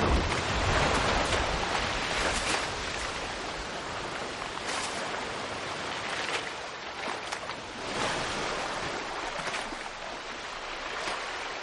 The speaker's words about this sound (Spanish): Las olas arrastran a los hombres hasta la playa de la isla.